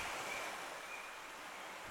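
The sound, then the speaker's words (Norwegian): A steady, hissing wash of sea waves, soft, with no distinct breaks or surges over the short stretch and no voices. “Og så havet, da.”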